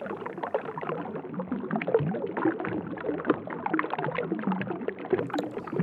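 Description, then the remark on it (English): Busy, churning water rushes and splashes continuously, moving fast in many different directions, a dense swirling wash with constant small bursts, steady throughout with no voices. “Sound like water moving quite fast, but like moving in many different directions.”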